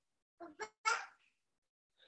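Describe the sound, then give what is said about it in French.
A baby girl babbles in three quick vocal bursts, rising in loudness, followed by a pause and a brief fresh sound at the very end. “oui bébé, à travers l'histoire de la création, ma fille est d'accord,”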